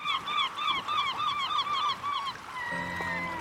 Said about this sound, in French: Je n'ai encore rien vu de Boulogne-sur-Mer mais j'ai senti la mer et j'ai entendu les mouettes.